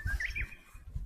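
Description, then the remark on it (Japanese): A Japanese bush warbler sings a brief run of clear whistled notes, fairly soft, over low thumping rumble from footsteps or handling noise outdoors, recorded while walking near a family home on May 4, a day with little wind. “あ、候補劇です。ウイスが鳴いてますね。”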